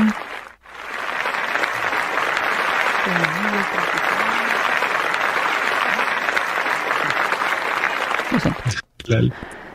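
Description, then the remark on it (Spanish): Sustained applause from a crowd, dense steady clapping lasting several seconds with a brief pause near the start, then a voice speaking briefly as it ends. “Les mando un fuerte abrazo o aplauso en este caso.”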